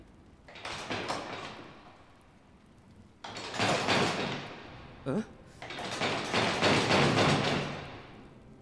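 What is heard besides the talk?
locked door being tried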